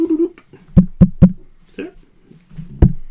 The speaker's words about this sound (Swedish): Nu knackar jag där. Då kom de där.